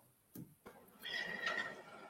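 vehicle, horn honking

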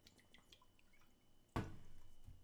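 food or drink, drinking water

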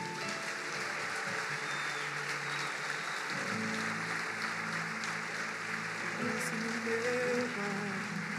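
crowd, audience applauding loudly

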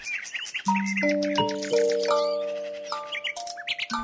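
bird, birds singing

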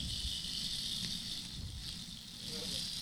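sound effect, rain sound effect

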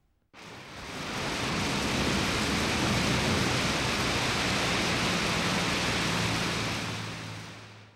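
nature, wind and rain

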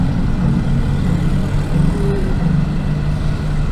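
vehicle, street traffic

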